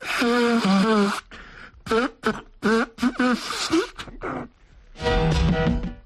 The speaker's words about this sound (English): Each week we play you a recording of a famous pop star blowing his nose and a snatch from one of his biggies for you to identify. Now listen carefully for this week's clues.